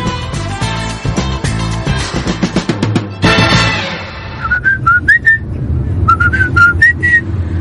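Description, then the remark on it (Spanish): Someone whistles a familiar tune in two short phrases of clear, high notes, following a few seconds of full instrumental music that carries on more softly underneath. “¿Y por qué me cantas el feliz cumpleaños ahora?”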